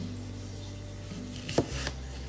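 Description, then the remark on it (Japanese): A single heavy, crunchy knife chop through an apple onto a cutting board, a sharp thunk over a low steady background hum, with a faint second scrape just after. “ザクという音でちょっと怖い音でしたね自分の想像の中ではもっとトントントントントントンサクサクサクっていう感じだと思ってたんですけど結構怖い音でちょっと驚きましたあれかなまな板とかの関係なのか力私の力が強いのか”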